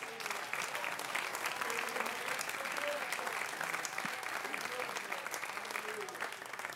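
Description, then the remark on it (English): An audience claps steadily for several seconds to show agreement that God is good in bad times and good times, a dense, even wash of many hands with a faint murmur of voices underneath, sustained at a constant loudness throughout. “Clap your hands if you agree with that.”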